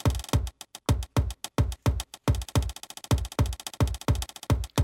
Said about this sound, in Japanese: ヤミーさんのね印鑑の音がキックドラムの代わりみたいになってそこに吉田裕二さんの穴開け機の音が乗ります。